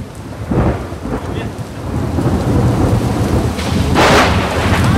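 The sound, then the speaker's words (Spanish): A thunderstorm on Wednesday, 16 August 2023, with steady rain hissing throughout, low rumbling thunder rolling underneath, and a loud thunderclap bursting near the end. No voices. “Ese trueno fue para vos”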